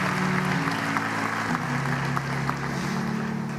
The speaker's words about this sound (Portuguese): Sempre vamos aplaudir o Senhor por essa hora tão bendita e tão especial. Glória a Deus.